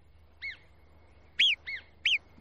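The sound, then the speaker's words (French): Four sharp, high whistled alarm calls of a marmot, one single then three in quick succession, loud against a quiet outdoor background with a faint low hum, warning the other marmots nearby of danger. “Ces quelques coups de sifflet très puissants avertissent toutes les marmottes du coin qui s'arrêtent net et se tiennent sur leur garde.”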